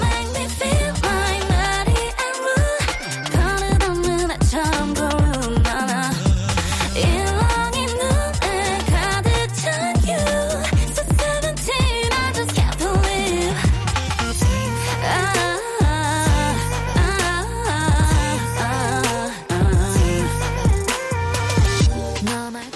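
A pop song duet from a full-length album plays steadily at full volume, with two singers trading sung melodic lines back and forth over a dense beat and bass, continuous throughout with no talking over it.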